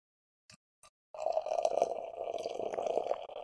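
Hazy beer pours steadily into a glass in a continuous gurgling, splashing stream. It starts abruptly after two faint clicks and keeps flowing, with no voices.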